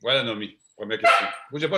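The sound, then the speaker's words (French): The woman's own female dog barks once or twice, loudly, overlapping her talking, with a short pause in the speech just before. “C'est mon chien, excusez-la.”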